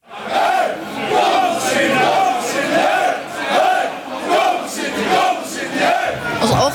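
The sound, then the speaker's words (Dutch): A large crowd of fans seated in the stands at an Almere match roars with a mix of cheering and jeering, loud and sustained, swelling in repeated waves of massed voices with no clear individual words. “Je ziet in één keer publiek zitten, je hoort gejoel, gejuich.”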